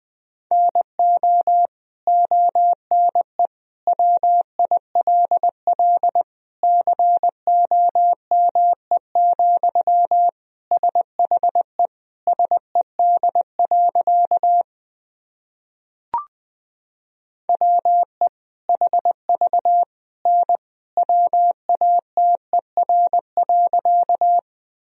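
Morse code sent as a steady mid-pitched beeping tone at about 20 words per minute, keyed in quick dots and dashes, with a short silent pause and a faint click midway, sending sentences built from the top 100 words and abbreviations.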